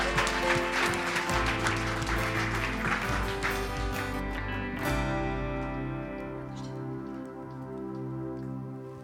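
A church audience claps for a visiting preacher in a dense, crackling burst for about five seconds over steady background music, then the applause thins out and fades while the music carries on.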